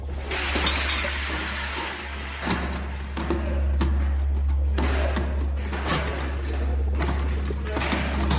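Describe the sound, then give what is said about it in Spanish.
Chairs crash and clatter repeatedly as a man throws chairs in an empty hospital waiting room, several loud thuds and scraping impacts spread across the scene, over a steady low rumble in the background. “Tira sillas.”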